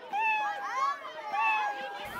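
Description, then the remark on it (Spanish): A voice imitates a lonely kitten meowing in pain: two drawn-out, wavering high-pitched mews in quick succession, fairly loud, with no other sounds around them. “La pobre gatita maullaba de dolor, temblaba y miraba a todos como diciendo, no me hagan daño, tengo miedo.”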